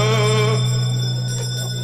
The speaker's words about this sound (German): Äh, wir läuten die Glocken zur letzten Runde. Letzte Runde.